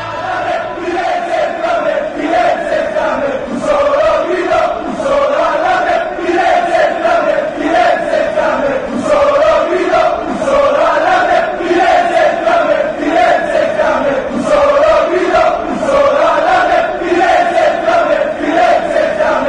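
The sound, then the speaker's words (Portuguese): A large crowd of Juventus supporters chants the stadium song "Firenze in Fiamme" (Florence on fire) in unison, steady and loud throughout, the massed voices rising and falling in a repeating melodic rhythm. “A gente termina com Firenze em Fiamme. É, Florença pegando fogo, é o que deseja os juventinos.”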